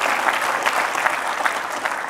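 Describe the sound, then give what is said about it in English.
An audience applauds God steadily, a dense wash of many hands clapping at a fairly loud, even level with no voices standing out. “If He's ever done that for you, give Him the biggest round of applause you've given Him in a long time.”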